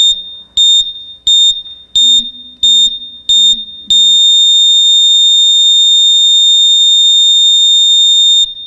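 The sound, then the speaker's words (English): A heart monitor beeps six times in a quick, steady rhythm, then sounds one long unbroken high-pitched tone that holds loudly for several seconds, like a flatline. “Heart monitor sound effect.”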